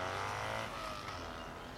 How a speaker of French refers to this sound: je me réveille à 3h du matin, prends mon petit déjeuner et je pars donc sur ma moto. les rues sont vraiment désertes puisqu'il n'y a, personne à ce moment-là, évidemment.